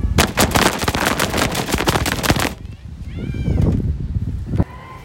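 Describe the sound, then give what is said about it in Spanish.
A distant drum roll: a rapid, steady rattle of sharp beats for a couple of seconds, then giving way to a low rumbling murmur with faint tonal cries. “Me parece que oigo redoblar a lo lejos el tambor.”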